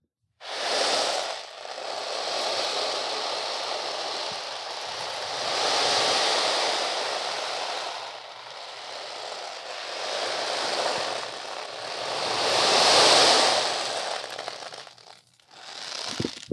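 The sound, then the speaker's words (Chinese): A handmade ocean drum, made from an oil-painting canvas frame with mung beans inside, rolls its contents back and forth, producing broad hissing swells like waves washing in and receding, several surges rising and fading over about fifteen seconds, with no talking. “对，它是一个海模拟海浪的乐器，这样。”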